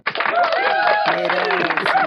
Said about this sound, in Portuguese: aliás, eu queria pedir uma salva de palmas para mim, por gentileza, porque eu deixei o meu celular descarregar.